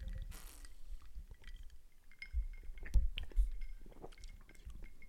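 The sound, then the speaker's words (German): A few glasses of gin and tonic clink together in a toast, bright ringing taps clustered in the middle of the moment amid faint handling rustle, with no voices heard. “Ja, salute. Prost, Prost.”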